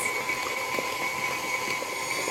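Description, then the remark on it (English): An electric stand mixer runs steadily with a constant motor whine and hum and faint rhythmic clicks from the beaters while eggs are dropped in one at a time; no voices. “I'm going to drop them in one at a time with the mixer going.”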